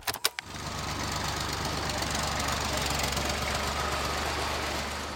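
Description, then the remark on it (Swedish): A tractor engine starts with a couple of sharp bursts, then settles into a steady, loud, rumbling run with a knocking low-end throb that continues to the end. “Rätt fordon för det där ljudet är en traktor.”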